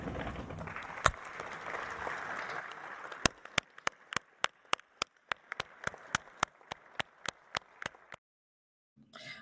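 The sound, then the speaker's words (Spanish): Legislators stand from their seats in the chamber and applaud for a minute in honour of the Army and National Guard, a dense wash of clapping that settles into loud, steady, unison claps in a regular rhythm before stopping abruptly. “Les pido, por favor, que se levanten de sus curules y vamos a atender y a conceder este justo minuto de aplausos.”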